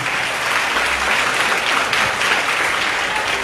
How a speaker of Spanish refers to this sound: Así que, divino niño, te encomendamos a los migrantes. Démosle un aplauso para que nos escuchen.